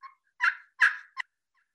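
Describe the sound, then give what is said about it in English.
A few short, raspy turkey yelps scraped out on a pot-and-peg friction call, three main notes in quick, uneven succession with a final clipped cluck, clear with no talking. “and then your peg. You want to angle it a little bit toward you, and you just find, and you can play with it at different places until you find the, the sweet spot for the calls that just”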